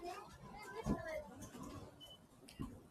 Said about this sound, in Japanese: 子供の声が、ああ、今ちょうどね、あれっすね。多分駅近くで、で、お子さん連れてる方がいらっしゃって、ですね。